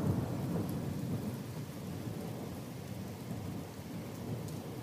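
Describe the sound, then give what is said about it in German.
A thunderstorm with frequent lightning, steady, dense rain hissing throughout and a low rumble of thunder rolling underneath, loud and continuous with no voices. “Nur mal damit ihr mal so mitkriegt, wie oft es hier so blitzt.”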